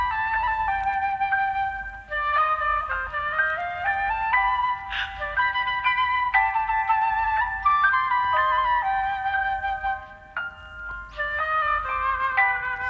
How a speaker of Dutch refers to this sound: Maar ze is hier nog verlegen met haar fluit. Live is ze dat niet. Ah. Het is, het is wel heel ver in de mix inderdaad. Ja, hier hoor je hem.